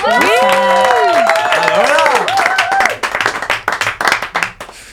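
A crowd bursts into loud applause, with high, sweeping whoops and cheers over dense clapping for the first few seconds, then the clapping carries on more raggedly as the cheering fades.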